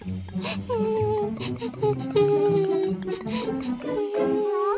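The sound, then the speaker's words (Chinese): A lost baby fox crying for its mother, heard by Dora and Boots: a run of high, wavering whimpers and drawn-out whining sobs that rise and fall in pitch, repeating steadily over a low, continuous background. “听起来像是哭泣的声音。”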